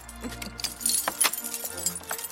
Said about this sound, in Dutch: Dit is een grote bos ja, Drie kwart kilo aan sleutels.